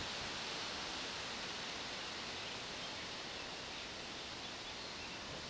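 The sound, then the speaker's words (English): Wind rushes steadily against an outdoor microphone, a dense, unbroken hiss with a faint low rumble underneath, filling the whole stretch with no voices. “Here comes the wind.”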